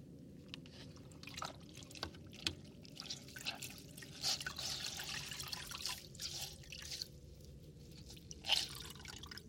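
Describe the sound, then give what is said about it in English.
Fresh water pours and splashes, a steady trickling hiss broken by sharper drips and splashes every second or so, with one louder splash near the end. No one speaks. “some fresh water for you.”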